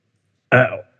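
A single short, throaty burp, close and fairly loud, rising abruptly and fading out within a moment against otherwise silent surroundings.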